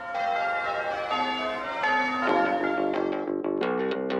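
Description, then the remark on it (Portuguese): Church bells peal together in a rich, overlapping clang, several strikes ringing out in quick succession near the end, with long sustained tones filling the background and no voices. “Os sinos espalham alegria, pensaram as gêmeas.”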